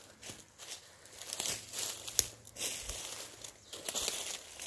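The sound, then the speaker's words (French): Footsteps crunch through dry dead leaves and small twigs at a steady, unhurried pace while walking among trees in a forest, each step a crisp crackling rustle, with no talking. “Tu continues sur ce tapis de feuilles mortes, de petits bois, de petits arbustes,”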